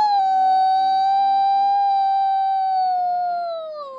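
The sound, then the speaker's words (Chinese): A voice imitates a rooster's crow with one long, loud, high-pitched call held steady for about four seconds, sliding slightly lower at the very end. “塞尔西深吸了一大口气，张开嘴，用他最洪亮、最高昂的公鸡啼叫声叫道”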